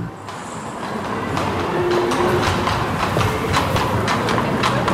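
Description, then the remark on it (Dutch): Horse hooves of a horse-drawn tourist carriage clip-clop steadily on a paved street in the old city centre of Ghent, a brisk, even rhythm of sharp knocks over the continuous rumble of carriage wheels and traffic. No one speaks. “Vanaf volgend jaar zal u dit geluid in Gent niet meer horen.”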